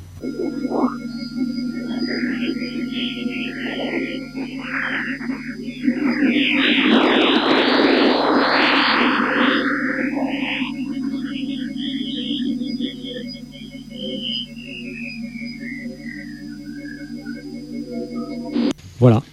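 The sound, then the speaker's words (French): Sonified radio emissions from Jupiter, real radio-wave data captured over about an hour and time-compressed into a clip of about twenty seconds: an eerie, steady electronic hum overlaid with warbling, whistling tones that sweep up and down, swelling into a dense burst of chirps midway before a long descending glide. “Donc là, je vous dis juste qu'il s'agit d'un court extrait sonore qui concerne une émission radio de Jupiter.”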